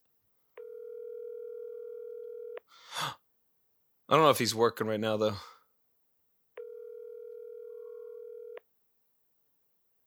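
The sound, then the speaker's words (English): A phone's outgoing ringback tone purrs twice on a call to a mobile number, each steady ring lasting about two seconds, with a long pause between in which someone gasps and briefly speaks. “Calling Doug. Mobile.”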